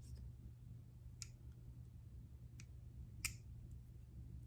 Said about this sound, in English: Um, there are some wires that we need to, there's some wires we need to, to twist.